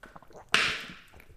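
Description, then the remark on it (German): Someone takes a quick sip of water: a single sharp, hissy slurp that fades over a moment against an otherwise quiet background, with no talking. “So, ich nehme kurz einen Schluck Wasser.”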